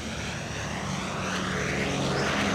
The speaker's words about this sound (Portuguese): Um bombardeiro americano sobrevoa sobre as copas das árvores, no limite com um longo trecho de praia. Pássaros se espalham, macacos gritam. O Douglas B-26 Invader foi um dos aviões de combate mais ferozes durante a Segunda Guerra Mundial